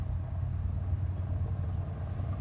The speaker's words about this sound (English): we'll, pause, we'll, pause, for the car to drive by on the gravel.